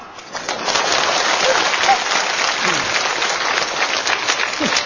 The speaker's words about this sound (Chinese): 您甭鼓掌